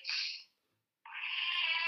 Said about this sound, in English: Oh, sorry, my cat's meowing again.